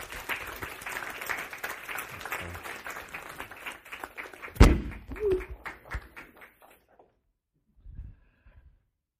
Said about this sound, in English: So as he comes to share the word, let's uh, give him a round of applause as we encourage him.